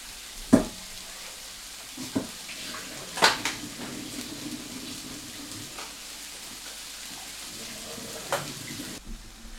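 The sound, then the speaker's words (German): Tomatoes sizzle in a frying pan as their liquid runs into the pan, with a steady, crackling hiss, punctuated by a few sharp clicks and scrapes of a utensil stirring. No one speaks. “Man hört es auch direkt. Hört sich jetzt anders an, weil einfach die Flüssigkeit von der Tomate dazu kommt.”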